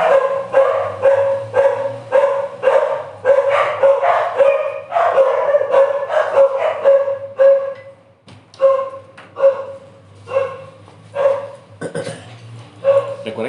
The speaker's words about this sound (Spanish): estamos en vivo y estamos desde la casa. y en esta casa hay siete perritos, así que es imposible que nada de lo que hagamos este, no se escuche un perrito de fondo.